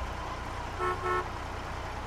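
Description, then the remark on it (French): A van horn gives two short honks in quick succession over a steady low rumble of engine and traffic noise, at the large maritime port of Marseille, France. “Mais rapidement, une camionnette me klaxonne.”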